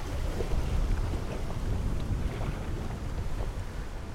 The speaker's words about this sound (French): quand il y a beaucoup d'eau, les cailloux bougent au fond. On les entend rouler d'ailleurs, c'est impressionnant. Tu les entends rouler On les entend rouler. On entend clac clac clac clac clac clac clac clac clac clac.